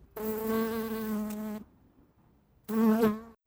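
Steady buzzing of a red-fronted dagger wasp in two bursts: a long droning stretch, a short pause, then a briefer, slightly louder buzz. No voices.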